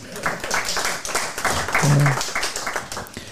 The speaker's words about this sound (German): Auch das hat einen Applaus verdient, finde ich.